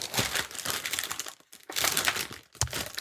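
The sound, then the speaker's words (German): Crinkling plastic wrapper of a Chinese fortune cookie being torn open, a dense crackly rustle in two bursts separated by a brief pause, fairly loud with no voices. “ja, das sind chinesische Glückskekse. Die sind ordentlich eingepackt, weißt du.”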